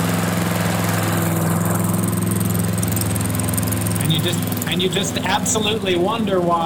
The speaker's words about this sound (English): I would mow the lawn. I would do it, you know, with the gas mower or whatever.